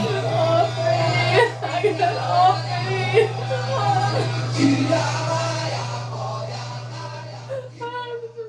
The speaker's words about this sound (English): We're going to play some of the tape now. Fair warning, it's hard to listen to. There are points where she's screaming and crying, Get off me, get off me.